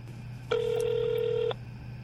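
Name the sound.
telephone ringing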